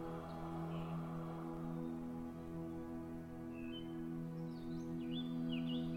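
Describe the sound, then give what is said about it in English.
Faint birdsong from birds in the trees, with a few short chirps and trills over a steady, sustained musical drone, the calls growing a little busier toward the end. “The birds are singing”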